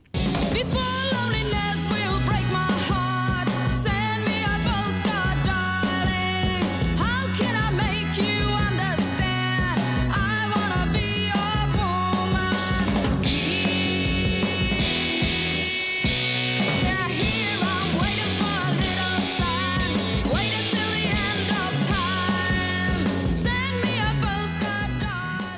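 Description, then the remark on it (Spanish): A 1968 psychedelic rock song, pleading insistently for a letter that never arrives, plays continuously at a steady, full volume, with a dense band sound of bass, drums and bright guitars driving a steady beat throughout. “Es una canción del año 68 y suena así.”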